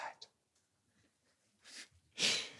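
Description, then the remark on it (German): A single sharp sneeze bursts out near the end, preceded by a quick inhaled breath and a brief hiss, with no talking around it. “Gesundheit.”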